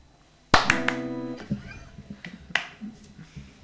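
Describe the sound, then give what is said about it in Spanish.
A few sharp hand claps land irregularly, the first loudest, with a brief ringing tone trailing after the early ones. Two people clap together in unison as a twin clap, with no talking. “Hicimos un aplauso gemelo también, como, como en las letras y como en las gotas.”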